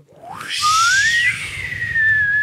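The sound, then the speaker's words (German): A voice imitates a trill whistle: a breathy, rising whistle that sweeps upward and then holds a steady high pitch for about two seconds, fairly loud. “Oder, oder den klassischen, diese, diese, diese Pfeifen, diese Trillerpfeifen, die so.”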